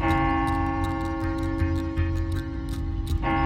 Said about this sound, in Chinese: 就在这个时候啊，模模糊糊的，西里子听到了一声钟声。